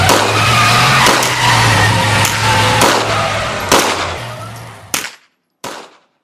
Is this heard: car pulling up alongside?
yes